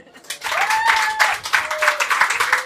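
Live audience applause: a dense, steady wash of many hands clapping, with a few faint whistles and cheers rising through it, holding strong throughout.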